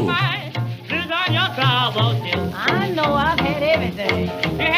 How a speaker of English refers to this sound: you hear that slap bass?